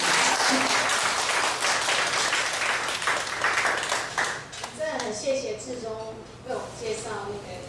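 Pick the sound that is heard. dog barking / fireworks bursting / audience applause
audience applause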